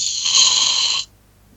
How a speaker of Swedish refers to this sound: Jaha, hördes det? Ja, det kan man lugnt säga att det gjorde. Jaha, nej, jag har en flaska sprutgrädde här som jag